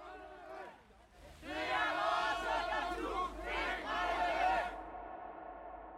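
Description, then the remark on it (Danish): A large crowd at a youth house chants in Danish in unison, "it's our youth house, hands off", loud and rhythmic, rising from a quieter start into sustained collective shouting before cutting off abruptly. “Og så selvfølgelig det der sådan, den der, man også kan høre, det er vores ungdomshus, fingrene væk.”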